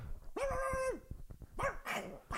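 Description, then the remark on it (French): A 21-year-old chihuahua lets out a sustained, high-pitched bark or whine, followed by a few sharper yapping barks with a rough, growly edge, fairly loud. “Vous seriez en compagnie du chien le plus vieux du monde, un chihuahua de 21 ans qui se trouve actuellement avec vous.”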